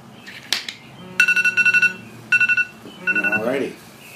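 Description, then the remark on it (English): A five-minute digital timer alarm goes off, shrill electronic beeps arriving in three rapid bursts of several pulses each, fairly loud, with faint voices and rustling underneath. “You do have a five-minute alarm set, right?”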